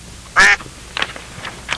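A duck quacks loudly, one strong nasal quack followed by a couple of softer, shorter quacks, with no voices present.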